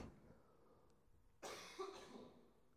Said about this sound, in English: you only start one cough and it just keeps going. Yeah, you've been there.